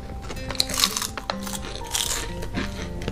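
Someone munching crunchy regular potato chips from a major manufacturer, brand C: a few sharp, crackly crunches in irregular bursts over a steady low background, with no talking.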